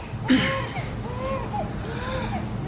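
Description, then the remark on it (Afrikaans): A baby cries faintly, a few drawn-out wavering wails rising and falling over steady background noise. “Ek hoor 'n baba huil.”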